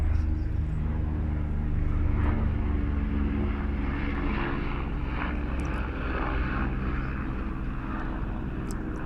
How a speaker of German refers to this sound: Oh, jetzt ist hier ein Flieger. Ich hoffe nicht, dass du das jetzt so hörst. Ich mach mal kurz Pause.